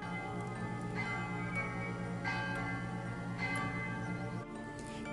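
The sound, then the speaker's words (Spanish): A bell tolls in slow, steady strokes about once a second, marking nine o'clock at night, each strike ringing out and blending into a rich, sustained hum. It sounds loud, with no voices. “Aún se encontraban jugando y divirtiéndose, pero las campanas sonaron.”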